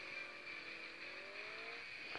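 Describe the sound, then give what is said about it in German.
A video game car engine drones steadily at high revs, its whine climbing slightly in pitch, with a brief knock near the end as the car is wrecked, spins and shakes violently; no one speaks. “Oh mein Gott, das Auto wird einfach voll zerschrottet und wackelt sowas von.”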